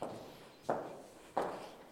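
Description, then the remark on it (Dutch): Steady footsteps walk at an even pace through a church cloister that runs around an inner garden, about three or four firm steps, each one ringing out with a short echo. No one speaks. “En nu lopen we in kloostergang, noem je dit, toch?”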